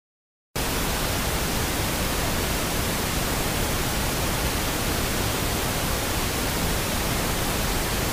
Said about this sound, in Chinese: 那至于现在啊，研究推荐的粉红噪音呢，它是属于一个。非常无趣、单调，然后有一些高频的机械性声音。